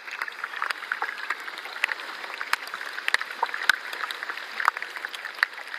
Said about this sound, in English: It was bubbling and fizzing away. It kind of sounded like that magic gum you have as a kid, or or like bacon and eggs. And there was these tiny little flakes of ice that are sort of cracking and breaking.